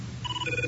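A short electronic phone ringtone, the ring of the CTU office phones of Jack Bauer, chirps out in quick, bright, warbling tones over a low background hum, clear, with no one speaking.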